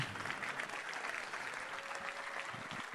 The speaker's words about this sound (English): Everybody that's been blessed, give the Lord a hand of praise, won't you? Oh, come on, come on. That that sounds like a little patty cake.